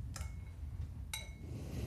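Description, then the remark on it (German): Two sharp glassy clinks about a second apart as ice cubes are dropped into a glass of drink with water, each with a bright ringing tail over a low steady rumble. “Nochmal hier den Eiswürfel rein. Plötsch.”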